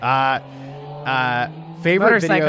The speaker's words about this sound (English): That, there you go. These, that's my motorcycle.